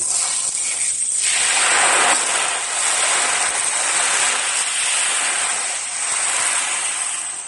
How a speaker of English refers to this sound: It actually sounds like the ocean too. Yeah, that's beautiful. That is an ocean drum.